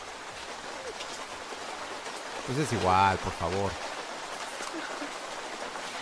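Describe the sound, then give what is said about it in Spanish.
Steady rain patters on a tent in a dense, even hiss that fills the whole clip, while a voice speaks briefly over it in the middle. “Lluvia en carpa.”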